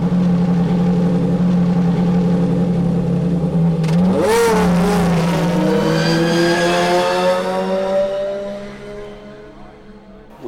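Loud racing engines idle with a low, steady rumble, then roar up sharply around the midpoint, revving high and holding a harmonic whine before easing off near the end.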